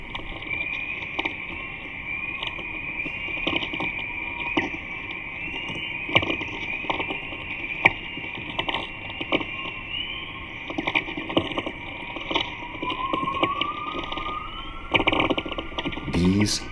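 Recorded sounds of the magnetosphere and aurora: a steady, eerie high-pitched hiss with scattered crackles and pops throughout, and a rising whistling tone sweeping upward near the end. No one speaks.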